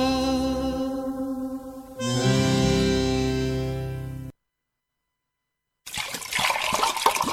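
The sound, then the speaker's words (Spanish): A song with sustained tones ends abruptly, then after a short silence a steady rush of bubbling water starts up as more water is heated for mate, like water heating in a kettle, continuing to the end. “Ya calentamos más agua.”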